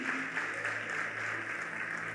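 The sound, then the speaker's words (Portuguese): A church audience applauds the Lord steadily, a dense wash of many hands clapping at a constant level with no pauses and no voices standing out. “Eu queria que você aplaudisse o Senhor por essa pessoa que está do seu lado.”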